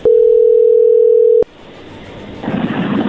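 A telephone ringback tone: one loud, steady, mid-pitched electronic beep lasting about a second and a half, then it cuts off abruptly, leaving a soft line hiss that grows slightly louder.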